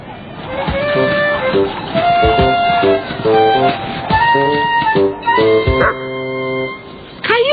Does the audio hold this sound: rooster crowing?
no